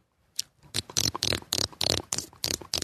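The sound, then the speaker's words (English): A voice imitates a horse trotting with quick, close mouth clicks in a steady, galloping rhythm, about a dozen sharp pops over a few seconds with no talking. “I thought it was a horse trotting. No, this is a horse right.”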